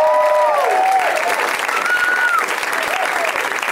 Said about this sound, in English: Oh, you guys, there's an awesome group of comics backstage, and I love them, and they can hear you. So let's clap for them as well.